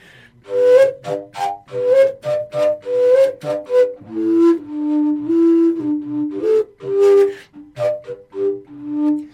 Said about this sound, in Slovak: A tam už môžeš robiť s dierkami, ale keď sa učíš, tak len na zavreté dierky hráš, hráš, púšťaš buď spodnú dierku, alebo vrchnú, hej? Na tú spodnú, keď uh, púšťaš, tak uh, ako keby si hral na jednodierovej píšťale.